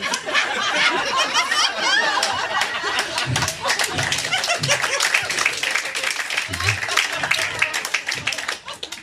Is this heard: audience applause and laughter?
yes